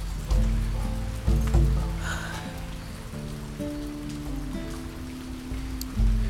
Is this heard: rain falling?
yes